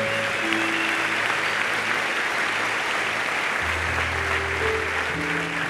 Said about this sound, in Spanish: Amén. denle un aplauso fuerte a Dios ahí.